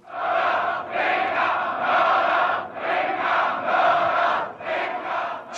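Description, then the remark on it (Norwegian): A large crowd of student demonstrators chants in unison at a 1968 mass protest after the shooting of Rudi Dutschke, shouting that Springer is a murderer, loud rhythmic phrases repeating in waves with brief dips between each shout, many voices blending into a roaring mass. “springer er en morder, roper demonstrantene, og mener det er de hatefulle angrepene mot Rodidutskij fra Biltzeitung og andre deler av springerpressen som har egget attentatmannen til handling.”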